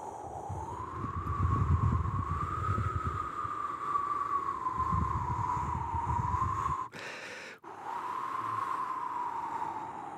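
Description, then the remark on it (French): A voice imitates wind by blowing a long, steady, breathy whoosh with a hollow tone, fairly loud, broken once by a quick intake of breath before the blowing resumes. It is a technique for building a wind sound effect that is later edited in post-production. “Et après, sinon, l'autre technique qui est plus difficile, euh, qui permet de constituer un son de vent, euh, mais qui nécessite plus de travail euh, de post-production, c'est de faire le bruit du vent comme ça, genre”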